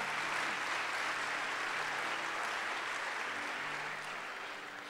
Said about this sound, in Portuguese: Uma salva de palmas para Jesus, pode dar.